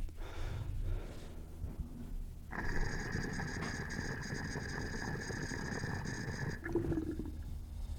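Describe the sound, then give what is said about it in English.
Water gurgling and gulping as it drains past the little disc of a glass double diffuser, a steady bubbling rush with a faint whistling tone that runs for several seconds and then cuts off abruptly. “the noise these double diffused make when the water's draining past that little disc it's like a a gulping, like blooping noise.”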